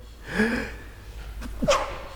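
A sharp inhaled gasp followed by a quick, explosive sneeze, with a short breathy burst just before the main sneeze. A faint low hum runs underneath.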